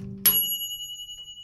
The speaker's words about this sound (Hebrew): אפרים כמעט התחיל שוב לבכות, אבל אז צלצל פעמון התנור.